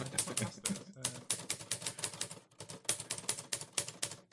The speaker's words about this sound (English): can I have like a, a calculator typing noise, please? All right, fine. Uh, let me let me calculate this math.